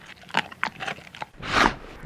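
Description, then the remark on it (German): A dog chews on a small treat, with several short crunchy bites in quick succession followed by a longer, louder wet chewing burst. No one speaks. “Also gut, es gibt zuerst ein kleines Leckerli.”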